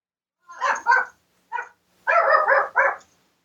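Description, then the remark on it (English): A dog named Bug barks and yowls in a series of vocal bursts: two quick ones, a short single yelp, then a longer run of drawn-out, warbling barks, with no one talking. “That's Bug speaking yeah. dog to thank you.”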